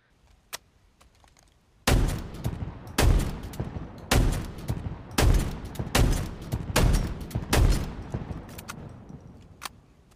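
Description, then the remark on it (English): Video game shotgun, the CQS 48 Bulldog, firing: about eight heavy, booming blasts at a steady pace, roughly one per second, each with a rumbling tail, after a few faint mechanical clicks. No talking. “So you know, um, the next one is the CQS 48 Bulldog.”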